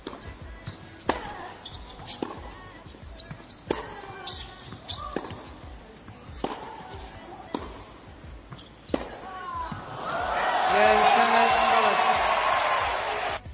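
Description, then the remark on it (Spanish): Crisp tennis ball strikes trade back and forth in a rally between Flavia Pennetta and Simona Halep on 25 October 2015, Pennetta's last shots on a tennis court, a sharp pop every second or so, before a crowd erupts into loud cheering and applause. Faint voices sit in the background. “Bonitas palabras, pero ¿quieres escuchar los últimos golpes de Peneta en una pista de tenis?”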